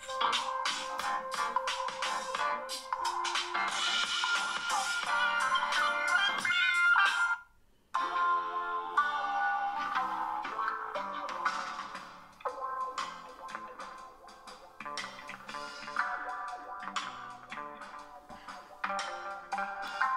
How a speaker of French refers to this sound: là, on va mettre à fond. Alors un petit truc à savoir, là le, le téléphone il est à peu près à 30 cm, 40 cm du micro. Voilà. Voilà, je le pose et comme ça vous voyez ce que ça donne au niveau du son. Vous voyez, le son sort que d'en bas, hein. voilà.